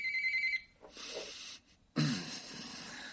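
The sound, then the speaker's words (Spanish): A telephone rings at Hank and Marie's house with a brief, high-pitched electronic trill that stops after about half a second. A hissy rustle follows, then a short silence and a louder burst of noisy handling as Hank picks up the phone. “Hank coge el teléfono.”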